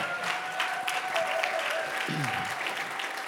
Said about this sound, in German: Komm, wir geben dem Lead-Team nochmal einen Applaus. Yes.